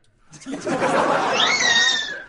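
A cat that has been stepped on lets out one loud, drawn-out yowl lasting about two seconds, its strained, harmonic cry climbing higher in pitch partway through before tapering off.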